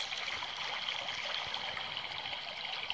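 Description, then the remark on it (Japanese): A babbling river stream flows steadily, a continuous bright rush of water with small gurgles and trickles, even in volume, with no voices. “これ聞こえますか川のせせらぎ音です。”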